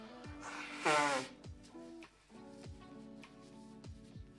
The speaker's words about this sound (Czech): Hele, nachlazený už nejsem, ale stejně se vysmrkám.